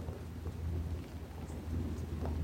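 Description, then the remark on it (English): Steady rain falls continuously while a low rumble of thunder rolls underneath, soft and sustained with no voices present. “If you're feeling any fears, let the raindrops take that energy”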